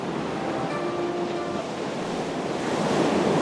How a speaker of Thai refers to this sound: ในขณะที่กำลังเดินอยู่นั้น ได้ยินเสียงน้ำดังกระทบหู พระถังซัมจั๋งก็เรียกลูกศิษย์มาถามว่า นั่นเสียงน้ำอะไร ดังอยู่ที่ไหน